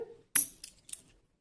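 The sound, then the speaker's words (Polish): An old mark coin is tossed and lands on a hard surface with a bright metallic clink and short ring, then bounces twice more with softer ticks before settling. Quiet, with no talking over it. “Tym to sobie nawet można rzucić i nie osiemdziesiąty 1882 jedna marka.”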